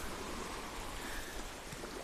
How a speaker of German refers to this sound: Wenn ich den Strand hier sehe, ist es total chillig. Es ist maledivisch. Barfuß, hier plätschern die Wellen.